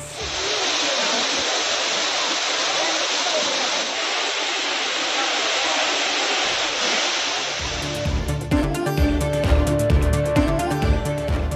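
A waterfall at Courtallam in Tamil Nadu, India, roars in a loud, steady rush of falling water for about eight seconds after heavy summer rain, with tourists bathing in it, then music abruptly takes over.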